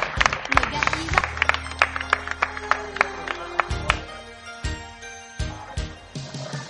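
Scattered, uneven handclapping from an audience, sharp individual claps rather than a dense roar, over a low hum and faint murmuring that thins out toward the end.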